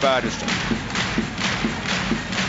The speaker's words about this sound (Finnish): Yleisön rytmikäs taputus odottaa, että kiekko tippuu.